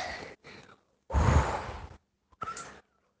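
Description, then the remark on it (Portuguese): A voice imitates a wolf in a told story blowing hard at a brother's house: several forceful breathy puffs, two short ones, a long loud gusty blow, then a final shorter whoosh, with no speech. “E soprou, soprou.”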